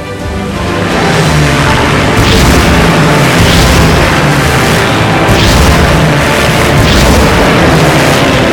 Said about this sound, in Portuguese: defesas antiaéreas abriam fogo contra os aviões britânicos. Em meio ao fogo antiaéreo e o mau tempo, os Shortfish lançaram seus torpedos